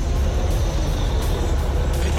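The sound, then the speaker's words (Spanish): A heavy mining truck from Navarrete rumbles by on the La Delgada road in Santiago de los Caballeros, its deep engine drone steady and loud throughout, with faint hissy bursts like air brakes recurring over the low roar. “Señor ministro de Obra Pública, yo quiero que usted tome en cuenta que todos estos camiones de Navarrete, de las minas, están evadiendo el peaje”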